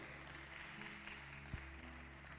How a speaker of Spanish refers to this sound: Démosle un fuerte aplauso a aquellas madres dominicanas el día de hoy.